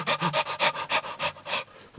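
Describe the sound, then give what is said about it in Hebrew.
A person imitates the breathing of a stressed person: rapid panting, about eight quick breathy puffs in steady rhythm, clear with no other talking. “שימו לב, אדם שהוא לחוץ, איך הוא נושם?”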